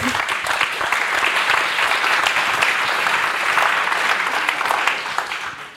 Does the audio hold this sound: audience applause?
yes